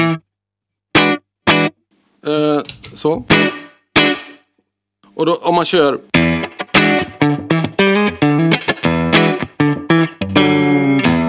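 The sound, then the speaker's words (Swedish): Electric guitar through the bridge pickup with distortion removed, a compressor and a touch of reverb, played as bright plucked notes and short runs, alone after a few spoken words at the start. “Och så kör man en, vi tar, förlåt, kompressor och så ett litet reverb.”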